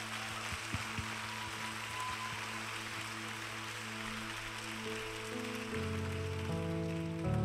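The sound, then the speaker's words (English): A crowd at Kensington Church claps steadily in a dense, sustained wash of applause, while sustained instrumental tones hum underneath and swell louder near the end. “We can clap for her one more time.”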